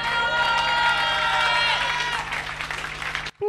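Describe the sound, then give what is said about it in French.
A live crowd cheers and shouts loudly and steadily in response to the host's call to make noise, with whistles and high voices layered over a dense roar for about three seconds before the noise cuts off abruptly. “Ok, elle est massive, faites du bruit, les six ça fait du bruit, montrez-leur que vous êtes là, yes?”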